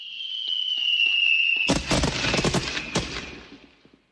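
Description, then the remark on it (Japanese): A high whistling tone rises and holds before a loud barrage of fireworks bursts and crackles in rapid succession, the popping dense at first and then thinning out as it fades; the Junk Market's signature 100-shot fireworks show. “花火そうだそろそろガラクタマーケット名物ワクワク花火100連発の時間だ”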